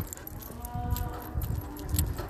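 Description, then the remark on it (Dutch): Cows moo, low drawn-out calls rising and fading over a soft outdoor rumble, with no one speaking nearby. “je hoort de koeien loeien.”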